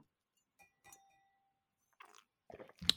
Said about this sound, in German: So, zum Wohl. So, das haben wir uns wieder schön gustieren und schmatzen